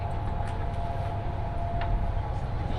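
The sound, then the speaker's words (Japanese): A West Kyushu Shinkansen Kamome No. 36 train, on the Nagasaki to Saga route, idles at a station platform before its 14:41 departure, with a steady, continuous low mechanical hum and a faint tonal whine, plus scattered soft ambient station noises and no speech. “耳で楽しむ鉄道旅 西九州新幹線 長崎→佐賀”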